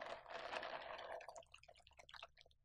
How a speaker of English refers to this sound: listen to the ice of our beverages clink around for a second. I'm drinking the pink drink from Starbucks right now. This is ASMR for you.